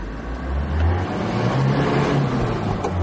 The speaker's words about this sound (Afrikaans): Sy 2,8 turbo diesel is gebaseer op 'n vorige Isuzu bakkiesin. Die 84 kW en 235 Nm trek beter as wat ek verwag het. Maar dis die feit dat jy van net 1000 toere in enige rad kan versnel wat baie goed pas by so 'n klein vragmotor.